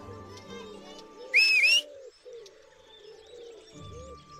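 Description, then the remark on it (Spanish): A single short, shrill whistle blast, blown by the story character Miss Clueca on her whistle, rings out sharply and loudly, rising slightly in pitch, over a soft background of murmuring, cooing bird-like sounds. “La pobre señorita Clueca hizo sonar su silbato.”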